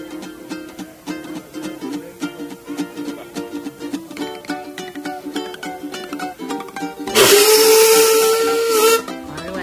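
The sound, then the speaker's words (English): A steam locomotive's rhythmic mechanical chuffing builds for several seconds, then its loud steam whistle blasts for about two seconds over a burst of hissing steam, prominent. “who's the owner of the, the steam locomotive that's been brought over for this weekend.”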